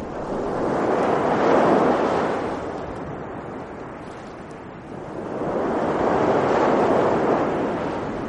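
Caribbean Sea waves wash onto a shore with palm trees in two broad surges, a loud hissing rush that swells, eases off in a quieter lull, then builds again, with no voices present.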